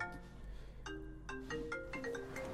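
A mobile phone rings with a quiet, melodic ringtone, a sequence of bright stepping notes starting about a second in and continuing to the end, with no talking over it.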